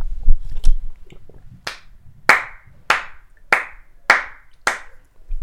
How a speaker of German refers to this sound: Dieser Applaus geht straight an Erdogan, alter Fuck.